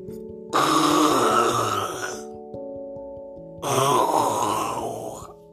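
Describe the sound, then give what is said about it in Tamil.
Two long, loud growls or roars of hunting wild animals in a dense forest, each rough and rumbling for about two seconds, separated by a short pause, with a faint steady tone humming underneath. “அப்படின்னு வேட்டையாடுற மிருகங்கள் ஒரு பக்கம்”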